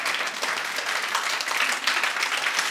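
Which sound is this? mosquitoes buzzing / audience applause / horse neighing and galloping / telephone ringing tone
audience applause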